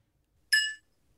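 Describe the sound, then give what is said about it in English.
A single bright clink of a wine glass being struck in a hotel room in Germany, ringing with a clear, high tone that fades quickly. “I believe that's a wine glass.”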